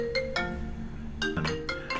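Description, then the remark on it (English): A mobile phone ringtone plays a bright, repeating electronic melody of short tonal notes, fairly loud, with no talking over it; the phone was not on airplane mode. “I didn't put it on uh, the phone on um, airplane mode.”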